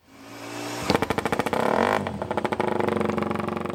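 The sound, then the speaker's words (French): A Moto3 racing motorcycle engine roars to life and revs hard, its rapid firing pulses forming a buzzing, stuttering rhythm that climbs and drops over a few seconds, loud and with no talking. “C'est parti pour la Moto 3.”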